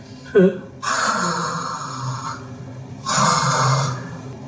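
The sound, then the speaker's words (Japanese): A performer's voice imitates loud snoring: two long, rasping, breathy snores, each lasting over a second with a short pause between them and a quick sharp intake at the start. “じゃあいびきをかくえいびきかくんですかこんなところでそんなことしてどうするんですかいやどうするんだって、まああとは私が何とかするからいいからいびきをかきなさい”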